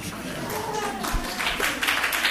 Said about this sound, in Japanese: ああちょっと拍手してもらって